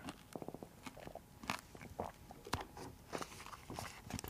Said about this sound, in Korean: 이게 이에 많이 일단 붙기 때문에 되게 많이 천천히 씹어줘야 되는데 지금은 시간이 없으니까 일단 이대로 할게요.